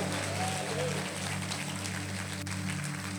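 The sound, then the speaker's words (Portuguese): An audience applauding God during a church sermon, with steady, dense clapping and no individual claps standing out, holding at an even level for a few seconds over a low, constant hum. “Se você crê nisso, aplauda bem forte Ele.”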